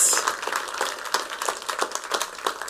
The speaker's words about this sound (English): Come on, let's give glory to Jesus. Let's clap our hands. Come on, Jesus.